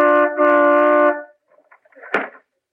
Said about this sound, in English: well, toot the horn. We'll see if he's home.